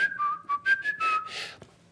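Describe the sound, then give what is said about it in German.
A person alone in a garden whistles a signal call to call a cat: three short whistled notes followed by three longer held ones, clear, with a faint click near the end. “ich hatte so einen Pfiff, den, an dem meine Katze mich erkannte. War immer so dreimal kurz, dreimal lang”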